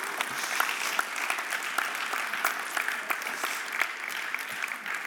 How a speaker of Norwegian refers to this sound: Og så begynner vi ut år én med 30 studenter. Det syns jeg er ganske kult. Det er nesten så dere må klappe en gang til.